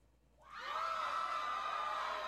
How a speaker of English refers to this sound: They're whooping. They're whooping. They're whooping and they're hollering.